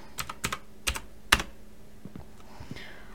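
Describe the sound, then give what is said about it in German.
Quick keyboard typing of a chat command, a short burst of sharp clicky keystrokes in an irregular rhythm, fairly quiet, with a few louder key hits among softer taps and no talking. “Dafür gehe ich hier mal in den Chat und gebe hier slash spawn ein.”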